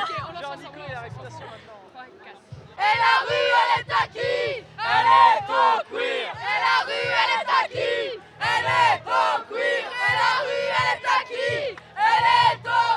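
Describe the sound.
A protest march crowd shouting loudly in rhythmic, chant-like bursts, many voices together, rising after a brief stretch of quieter murmuring and staying intense to the end.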